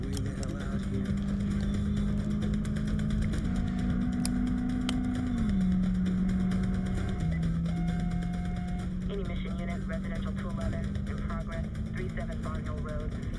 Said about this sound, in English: L listen to the engine. Man. It sounds just like Fast and Furious Vin Diesel. Honestly.